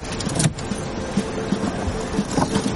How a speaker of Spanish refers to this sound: Chloe saca las llaves del contacto.